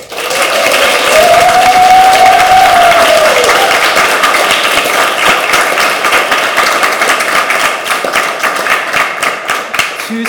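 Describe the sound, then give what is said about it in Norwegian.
A live audience at the Litteraturhuset in Oslo applauds loudly and steadily for about ten seconds, dense clapping, with a rising whoop or cheer early on before the applause gradually thins. “Som dere hører, sitter vi fortsatt her med publikum,”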